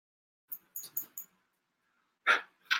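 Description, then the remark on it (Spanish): A small female dog yaps in a quick burst of four high, sharp barks, pauses, then lets out two louder, harsher barks, with no talking. “Perdonen, es que me sacó un sustote la, perrita.”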